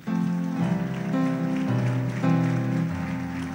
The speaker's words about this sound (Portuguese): Ah, pode aplaudir o Senhor, igreja.